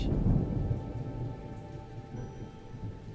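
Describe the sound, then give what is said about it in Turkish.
Steady rain falls with a deep, rolling rumble of thunder that swells early and then fades into a low, continuous growl beneath the downpour. “Selinay sarayındaki sıcacık odasında yağmuru dinliyor.”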